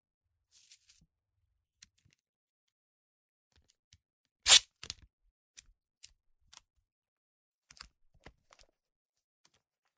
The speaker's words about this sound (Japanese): もう一周切り取る。私の体を机の上に置いて、切り取ったテープを上から貼って、私の体に蓋をする。